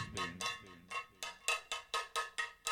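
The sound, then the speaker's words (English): A cowbell struck by a spoon about ten times in a fairly steady rhythm, each hit bright and metallic with a short ringing decay, clear with no talking. “Fool Killer says you must master the art of the cow. I must. I must. I must improve my cow.”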